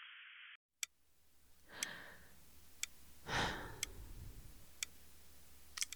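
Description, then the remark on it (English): A clock ticks steadily, one sharp click about every second, in a quiet, empty rented room, with two soft, slow breaths from a person sitting on the edge of a bed drifting in between the ticks. “All I hear is myself breathe and hear the clock tick as I sit on the edge of this bed in the empty room I decided I should rent.”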